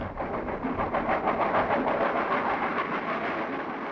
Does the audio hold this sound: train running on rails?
yes